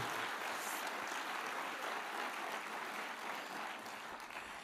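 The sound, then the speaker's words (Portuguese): An audience applauds for Jesus, a dense wash of many hands clapping at once, sustained and fairly loud for several seconds with no individual claps standing out and no talking. “Os problemazinhos, porque tudo está debaixo dos seus pés, em nome de para Jesus mais uma forte salva de palmas.”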